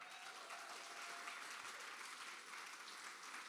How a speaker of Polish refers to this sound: A czy ja mógłbym poprosić wszystkich gości, którzy są teraz na tym miejscu, żebyście pomachali do mnie, żebyśmy wiedzieli, komu klaskaliśmy?